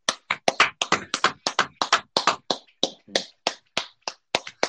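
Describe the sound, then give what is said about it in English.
Hands clap in a quick, uneven burst, roughly five claps a second for several seconds, sharp and fairly loud, like a few people applauding together with no talking over it, clapping because someone got an answer correct. “We're clapping that you got it correct.”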